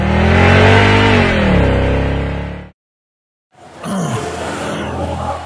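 A loud car engine revs hard with a rising roar, cuts off into brief silence, then another throaty engine rumble starts up.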